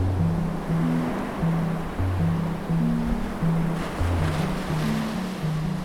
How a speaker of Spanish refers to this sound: El agua está fría, las olas rugen.